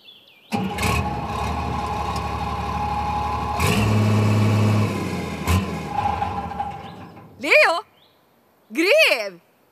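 An excavator's steady, rumbling engine drone runs for several seconds with clanking and a louder surge midway as it digs at the start of building work for a shopping centre, then cuts out, followed by two short rising-and-falling squeals.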